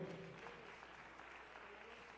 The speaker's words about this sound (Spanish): Denle aplauso fuerte al Señor que Él es bueno.